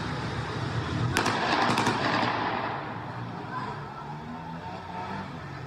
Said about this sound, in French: Voilà, règlement de compte à coups de fusil d'assaut.